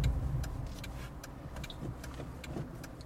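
Steady low rumble of a rented Toyota, used as a hearse, driving to a pet cemetery, heard from inside the cabin, with faint regular ticking clicks over the road noise and no one speaking.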